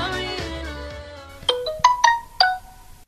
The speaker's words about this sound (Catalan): Ui, un missatge de mòbil?